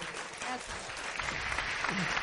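Sustained applause from the whole audience for a person being given a book as a quiz prize, a dense, even wash of clapping that holds steady for the whole couple of seconds, with faint voices murmuring underneath.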